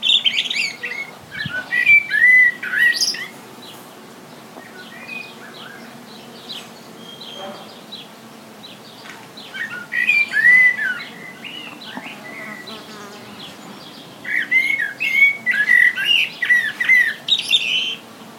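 Birds chirp and call in bursts of bright, high notes, with a steady insect-like buzz beneath; quieter stretches separate three busier flurries of song.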